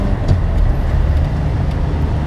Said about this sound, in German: Und jetzt muss ich mal überholen. Der LKW hat rechts geblinkt, dann überhole ich jetzt mal.